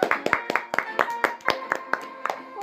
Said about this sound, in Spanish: le damos un fuerte aplauso a Nico que se animó a participar del podcast